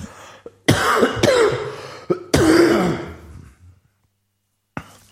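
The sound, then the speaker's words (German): A person coughs and clears their throat: a rough burst, a quick second one, then a longer raspy throat-clearing, followed by near silence and one short sharp breath at the end. “Ich muss schon wieder husten.”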